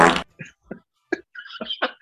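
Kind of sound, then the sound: human body sound, fart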